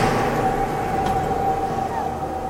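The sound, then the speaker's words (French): Rising wind at the entrance of a cave howls with a steady, thin whistling tone over a broad rushing roar, holding level and then bending slightly upward near the end, loud throughout and without any voices. “Non, ce n'est que le vent qui se lève.”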